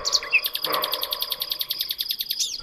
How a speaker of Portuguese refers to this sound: Em maio canta o roxinol.